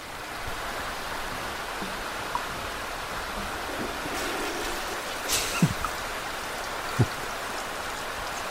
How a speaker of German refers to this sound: Das klingt nach größeren Mengen Wasser.